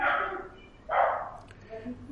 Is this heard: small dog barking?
yes